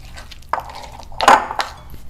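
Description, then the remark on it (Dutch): Utensil clinks and scrapes against a pan while ingredients, including an egg, are mixed, a few sharp metallic knocks with a brief ringing tone, the loudest cluster in the middle, with no voices. “Mixen.”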